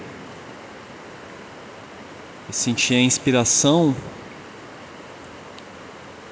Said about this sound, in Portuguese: E hoje eu estou aqui usufruindo do privilégio de morar numa área rural com natureza abundante e exuberante. Estou aqui numa cachoeira